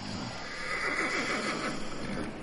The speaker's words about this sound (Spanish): El hombre escucha el relinchar de unos caballos, camina hacia la puerta y ve a dos jinetes en la entrada de su finca.